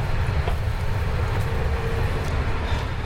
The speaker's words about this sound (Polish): O, i taka jest głośność w tym jakby miejscu, Y, no, między, wagonami. wagonami. W związku z powyższym myślę, że nie jest tak głośno, no bo zazwyczaj.